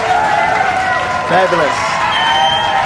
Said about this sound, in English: clap. Fabulous. Okay. Stop clapping.